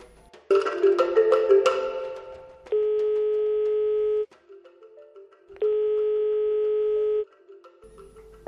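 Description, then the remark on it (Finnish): An outgoing call's ringback tone sounds twice, each steady electronic tone lasting about a second and a half with a pause between, after a brief burst of dialing tones. A radio show host is phoning a worker of the Fida mission organization. “puhelimen päähän koitetaan saada nyt”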